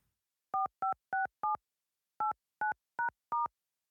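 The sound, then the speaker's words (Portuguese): A phone number is keyed in to call Sanepar, the water company in the state of Paraná: eight short dual-pitched touch-tone beeps, four in quick succession, a brief pause, then four more, crisp and clear with no talking. “Hoje eu vou ligar para lá”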